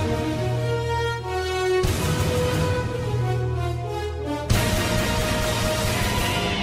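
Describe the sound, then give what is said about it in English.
Loud, full-band orchestral music with sustained brassy chords and bold rhythmic hits, changing sections abruptly: an NFL football broadcast theme playing on its own with no talking. “Well, you know what that sound is. That means it's the NFL, the and boy, is the National Football, League.”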